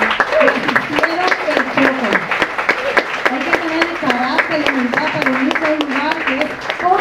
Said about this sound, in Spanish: Pero yo creo que le doy un fuerte aplauso también a la familia que...